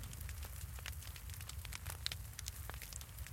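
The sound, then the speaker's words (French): A fire crackles steadily with frequent sharp pops and snaps over a low, constant rumble, fairly quiet, with no voices. “Plus de vent, plus de bruit, excepté le mouvement du feu.”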